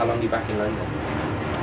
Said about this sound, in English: For everyone listening, that's a plane flying over. Plane.